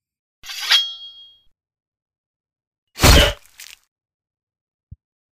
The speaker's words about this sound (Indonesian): Betollah badanku dengan pedang ini jika perang ini dapat menembus badanku, berarti aku mati dan musuh akan menang.